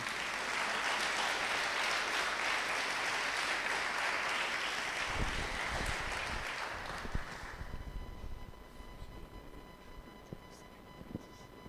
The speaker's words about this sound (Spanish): por favor, le damos un fuerte aplauso también a él.